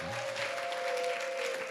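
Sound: audience applause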